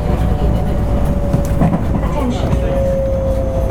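A JR West 223 series electric train on a local service near Mikunigaoka and Sakaishi stations in Japan rolls along at steady speed, heard from onboard: a loud, continuous low rumble of wheels with a sustained motor whine running through it, unbroken.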